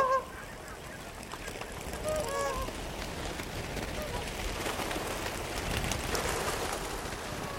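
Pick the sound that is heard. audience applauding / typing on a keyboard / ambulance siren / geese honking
geese honking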